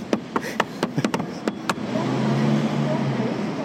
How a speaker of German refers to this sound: Wenn jetzt nicht gerade diese Straßenbahn vorbeifahren würde und jetzt noch das Auto vorbeikommen würde. Verdammte Hacke.